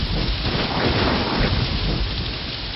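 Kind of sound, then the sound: nature, thunder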